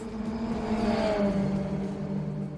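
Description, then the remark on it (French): A race car engine revs loudly and continuously during a 24-hour endurance race in the Sarthe, France, its pitch sweeping upward and then settling into a sustained, buzzing roar, with no voices present. “Pendant près de 24 heures, les moteurs chauffent.”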